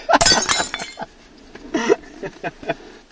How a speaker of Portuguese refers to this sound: É, é, estou aqui com estilhados de vidro do caralho.